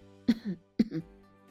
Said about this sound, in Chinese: …咳嗽了一阵，但并不是由于感冒。